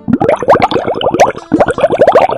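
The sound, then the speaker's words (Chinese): Pet fish splash at the surface: rapid, bubbly watery plops tumble over one another in a loud, continuous burst, with no voices. “小猫、小狗、小浣熊、鱼儿们，”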